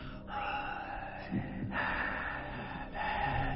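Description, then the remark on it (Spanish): A person imitates the heavy, raspy breathing of a horror-film killer hiding behind a plant before killing his victim: several loud drawn-out inhales and exhales in a slow rhythm, with no speech. “Cuando, cuando él estaba atrás, que iba a matar a su víctima, y él estaba atrás de la planta, y se escuchaba la respiración que hacía...”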